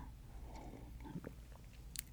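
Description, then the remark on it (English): Quiet sipping of coffee: soft wet mouth and swallowing noises, a few small clicks, and a short sharp slurp near the end, with no talking. “Oh my gosh, I need another sip of coffee for this next part.”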